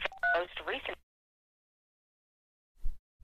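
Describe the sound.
A single short phone keypad DTMF tone from pressing the number three key, a crisp dual-pitched beep, runs straight into a brief burst of voice-like sound, then silence and a soft low thump near the end.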